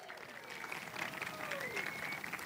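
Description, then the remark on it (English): A steady burst of audience applause for a group of children called up to play a game. Many hands clap densely and evenly at moderate loudness for a couple of seconds, with faint voices mixed underneath. “Let's hear it for these kids.”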